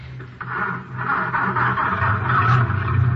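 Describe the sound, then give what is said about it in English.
A car engine turns over and revs, a loud steady rumble with a low droning hum and faint rhythmic pulses, swelling slightly toward the end. No one speaks. “Get this baby cranked up and follow McCann.”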